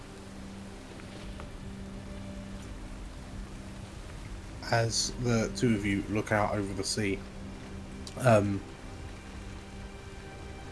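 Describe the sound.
Steady, soft hiss of rain falling throughout, a constant wash of noise beneath a low hum, with a person speaking briefly partway through.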